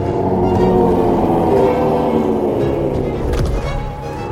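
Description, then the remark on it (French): A monstrous beast, Luthor, covered in sharp green scales with sword-sized claws, lets out a long, loud, rumbling cry, deep and growling, sustained for several seconds before easing off slightly near the end, before leaving its cave. “Soudain, la bête se mit à crier avant de quitter la grotte.”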